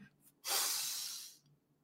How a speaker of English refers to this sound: So I call this the 478 breathing technique. Four, seven, eight. Take a deep breath in